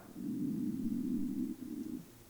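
A low stomach rumble from hunger growls steadily for over a second, pauses briefly, then gurgles again in a shorter burst, with no talking.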